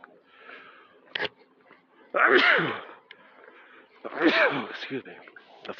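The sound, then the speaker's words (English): Two loud sneezes, a couple of seconds apart, each a sharp burst with a voiced, breathy tail, separated by quieter background noise. “I try to uh, cover my mouth, not go directly in your ear. I hope that wasn't too loud.”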